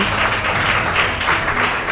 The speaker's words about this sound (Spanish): Bueno, y saludar, por supuesto, a quienes estáis aquí con nosotros en la Casa de Hermandad, que si queréis podéis aplaudir también para que se oigan que hay gente